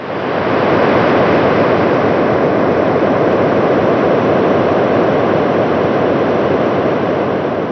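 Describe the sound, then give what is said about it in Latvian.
A continuous, loud rush and whistle of wind, recorded as a probe descended through the atmosphere of Titan, holding a steady level for the whole stretch with a broad, hissing texture and no voices. “Tas ieraksts ir, tur var dzirdēt tādu vēja svilpoņu un apmēram tādu pašu skaņu, kāda būtu, ja arī Zemes atmosfērā laistos lejā ar vai bez izpletņa.”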